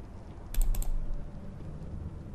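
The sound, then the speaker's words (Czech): A quick burst of three or four crisp keyboard and mouse clicks as someone clicks a download link for a game on a computer, then only a low, steady room hum for the rest of the moment. “Klikl jsem na odkaz pro stahování.”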